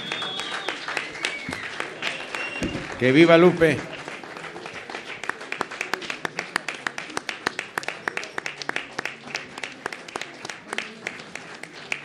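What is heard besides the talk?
audience applause and ovation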